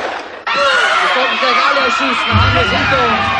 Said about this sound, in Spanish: Los prisioneros gritan.